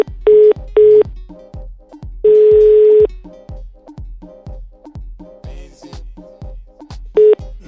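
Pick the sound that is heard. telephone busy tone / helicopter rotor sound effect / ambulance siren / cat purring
telephone busy tone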